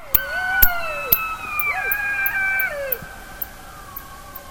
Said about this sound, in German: aber bis ich dann meinen Rekorder soweit hatte, war der auch schon fast wieder fertig und dann war auch noch irgendwie so eine Monstergrille in der Nähe, die mir diese ganze Aufnahme versaut hat mit ihrem ganz komischen Zirpen.